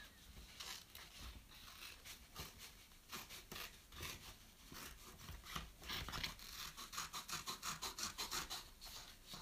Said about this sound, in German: So, dann nehmt ihr euch, also wenn ihr das so auf Papier gemalt habt, nehmt ihr euch eine kleine Schere und schneide das eben aus.